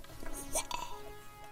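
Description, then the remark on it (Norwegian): Someone speaks through a warbling, watery distortion with a hollow metallic ring, as if talking through a steel pipe underwater, with brief bubbly, plopping artifacts. “det høres ut som jeg er under vann, og som jeg tar opp.”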